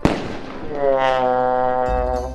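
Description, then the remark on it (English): Fireworks going off: a sharp, loud burst at the start, followed by a steady, high whistling tone that holds for about two seconds, with no voices. “As you just learned, Fireworks are actually chemical reactions caused by adding fire to a combination of sulfur, charcoal, and potassium nitrate.”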